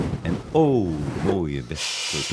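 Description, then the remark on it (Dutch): A man speaks, then a steady, breathy hiss of air escaping from the cushion of Van Gaal's chair rises near the end and continues under his voice for about half a second. “Maar het is gewoon lucht die uit het kussen...”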